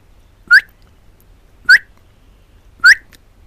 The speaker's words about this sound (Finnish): Jos löytää leppälintupoikuen, emojen kutsu ja varoitusäänet tulevat tutuksi.